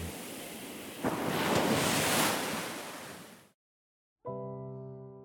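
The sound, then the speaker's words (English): Ocean surf washes in with a broad, hissing rush that swells, crashes and slowly recedes before cutting to silence, followed by a sustained, ringing musical tone. “And so all the night tide, I lie down by the side of my darling, my darling, my life and my bride, in the sepulchre there by the sea, in her tomb by the sounding sea.”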